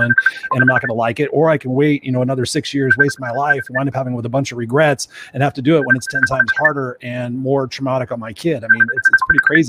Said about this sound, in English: I don't know what that sound is, but it's like. I think somebody's getting a messenger call. it's not me.